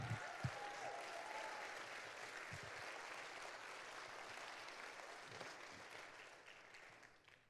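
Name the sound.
audience applauding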